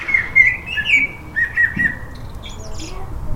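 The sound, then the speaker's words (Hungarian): Bright, warbling birdsong in a few overlapping phrases, clear, with some harsher squawky notes over a steady low outdoor rumble. No one speaks. “Szeretem a madár hangokat.”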